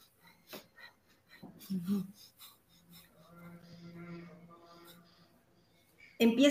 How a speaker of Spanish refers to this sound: es igual que como empezamos la respiración larga y profunda, tus manos en el ombligo, inhalo, se infla, exhalo, se desinfla, inhalo, se infla, exhalo, se desinfla, pero la diferencia es que con la respiración de fuego lo voy a hacer sin pausa.